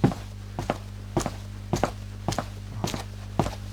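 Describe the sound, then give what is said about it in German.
Foley footsteps made by a sound effects artist on a street surface swept clean again: about ten crisp heel-and-toe steps at a steady walking pace over a faint low hum, with no voices. “Und habe wieder sauber geschritten.”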